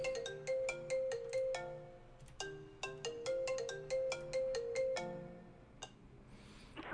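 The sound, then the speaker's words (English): A melodic phone ringtone for an incoming call plays loudly, repeating its bright, chiming phrase in a steady looping rhythm for several seconds before cutting off abruptly. “Hold on, I got a phone call.”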